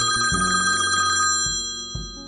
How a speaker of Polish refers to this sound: No i teraz, ponieważ mamy y, stałe punkty naszego programu, ponieważ jesteśmy już poważnym, dorosłym programem, ja słyszę, że dzwoni telefon.